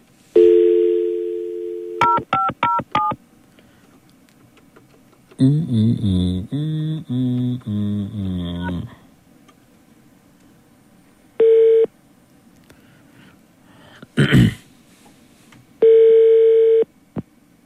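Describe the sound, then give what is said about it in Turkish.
A phone line hums with a dial tone, then quick touch-tone digits beep, a warbling burst of tones follows, and spaced ringing tones sound while a call to a listener connects during a live broadcast. No one speaks. “Evet e, peki bir dinleyicimiz daha alıyoruz bir saniye.”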